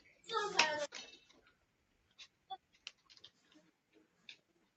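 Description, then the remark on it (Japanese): A young child playing roughly and acting up lets out a short, loud, high-pitched squeal, followed by scattered light knocks, taps and clatters as things are bumped and handled. “子供がちょっと、あ、暴れすぎて大変な。”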